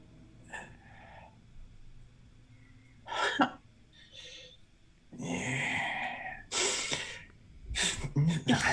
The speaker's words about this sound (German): Du nimmst einen Zug, musst dich ein bisschen überwinden merkst, wie Wasser in deinen Mund strömt und merkst, du kannst atmen.